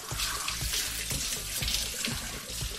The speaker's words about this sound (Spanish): Te despiertas, te quitas las legañas, te vas al baño y te pegas una buena ducha.